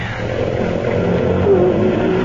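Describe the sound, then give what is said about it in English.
A car engine roars loudly and steadily as the driver starts the car into a skid, with a brief thin squeal rising out of the rumble midway, like tires starting to skid. “I'll start her into a skid.”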